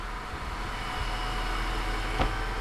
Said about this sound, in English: So this is pretty wild, right? The whole back trunk where you would normally put, if this were my car, I'd be putting my groceries, has just lifted right up. Uh, and there's obviously a big storage space in there.